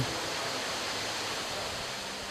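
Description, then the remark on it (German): Artificial waterfalls in the rainforest hall of a tropical park in Singapore rush steadily, a dense, even roar of falling water with no breaks, heard alone without any voices. “In der Regenwaldhalle rauschen angelegte Wasserfälle”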